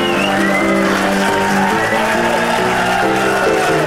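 An audience of the TV programme Rechtvaardige Rechters cheers and applauds the panel of Amelie Albrecht, Bert Kruismans and Jeroen Verdik loudly and steadily, with whoops rising through the crowd noise while bright music plays over it for the whole stretch.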